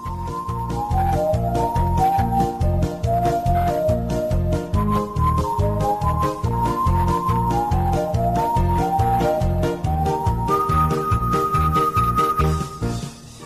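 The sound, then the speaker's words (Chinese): A cheerful children's cartoon theme plays as an instrumental, with a bright, whistle-like lead melody hopping over a steady, bouncy bass beat. It stays loud and even throughout, with no singing. “节目开篇听到的这样一首再熟悉不过的歌曲，来自于我们每个人内心深处童年的记忆”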